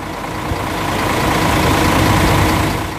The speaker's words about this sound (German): Einige Lkw stehen vor dem Grenzübergang Kapitan Andreo. Die Fahrer warten auf die Abfertigung durch die bulgarischen Beamten.